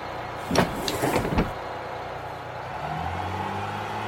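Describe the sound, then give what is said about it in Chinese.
A minibus on the move: a quick cluster of rattling, clunking knocks gives way to a low, steady engine drone, with a faint rising hum near the end. No one speaks. “日子如细沙，渐渐我学会熟悉的报站，学会在小巴上蹦蹦车，学会在急刹车时不再一屁股坐地上，学会跟恶意逃票的人耍赖。”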